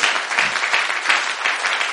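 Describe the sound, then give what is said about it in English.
An audience claps for the Lord Jesus together in a steady, dense wash of applause, loud and sustained for the whole stretch with slight swells, many hands blending into continuous crackling. “Oh, somebody, you are clapping for Jesus.”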